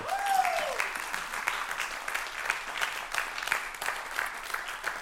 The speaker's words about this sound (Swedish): Amen, ska vi ge de här hjältarna en applåd?